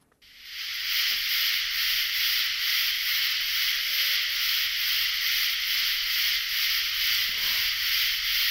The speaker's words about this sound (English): And the katydid uh, are the ones that you hear in the trees. They're frequently high up in the trees, and it's that Katie did, Katie did, Katie did, did sound that um, we are familiar with. Yeah, let's listen to the sound they make.